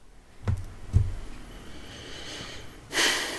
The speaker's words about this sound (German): Du siehst es anders. Ich höre das. Am Stöhnen, am Atmen.